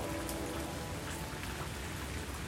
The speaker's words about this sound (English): The rain pelted down on me, dripping through my sandy brown hair and turning my sky blue bun up the color of the night sky.